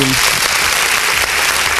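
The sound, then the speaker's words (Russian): A studio audience breaks into loud, steady applause as a guest is introduced, a dense wash of overlapping claps that holds at an even level for nearly two seconds, with a brief trace of voice at the very start. “Так что да, никаких явок и паролей, просто под бурные аплодис... аплодисменты.”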